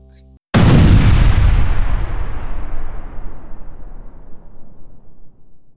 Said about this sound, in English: Then there was a loud bang, and the room explodes with a blast of thunder and smoke.